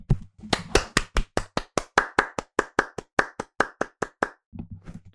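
Steady hand clapping: roughly twenty sharp, crisp claps in an even, quick rhythm lasting about four seconds, loud and with no voices over it, then a brief low rumble as it ends.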